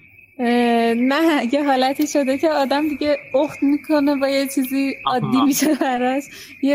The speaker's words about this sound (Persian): این صدای جیرجیرک بله. که الان ما میشنویم صدای جیجیگا که ما میشنویم خیلی بلنده میخوام ببینم حالا درسته تو محیط بیرونه ولی به حال این صدای هست دیگه این صدای اذیتتون نمیکنه